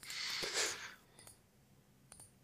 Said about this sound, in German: Du, du, klickst, du klickst auch schon wild rum, um deine Notizen zu finden.